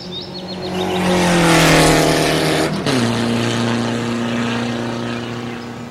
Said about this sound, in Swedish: Och i dagens avsnitt, Rallybil.